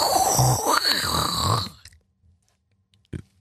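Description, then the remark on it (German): A voice makes a loud, rough, rasping imitation of heavy snoring, one drawn-out rattling breath lasting under two seconds, then near silence with a faint click. “hat sich angehört ein bisschen wie derbes Schnarchen.”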